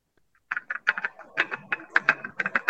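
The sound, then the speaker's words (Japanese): A rapid series of light, hollow wooden clacks tumbling one after another in an uneven, rattling rhythm as palm-sized wooden pieces of a toy called Donguri Korokoro clatter down a tilted board, swinging like a pendulum as they fall. No one speaks. “今ね、あの、ポッドキャストで聞いてる方は、音がカラカラカラっていい音をしてるのを聞こえてると思うんですけど、ちょっと口で説明しますね。”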